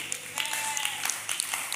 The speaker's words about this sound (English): Those of you who are clapping, you came to church.